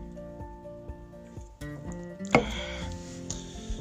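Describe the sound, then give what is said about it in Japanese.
Asahi draft beer pours into a glass, a gurgling, splashing stream with a sharp burst of foamy fizz partway through, then a steady frothy hiss as the glass fills. “締めのビールも悪くないねやっぱこの朝日の生ビールがうまいんだわ”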